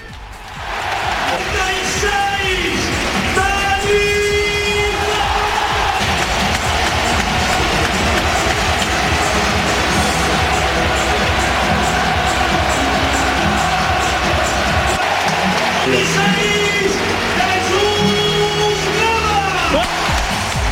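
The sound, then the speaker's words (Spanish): A large stadium crowd at the Villamarín applauds and cheers Dani Ceballos and Jesús Navas in a loud, dense, continuous roar for about twenty seconds, with an amplified voice over the noise at times. “el momento en el que la grada por megafonía aplaude tanto a Dani Ceballos como al propio Jesús Nava.”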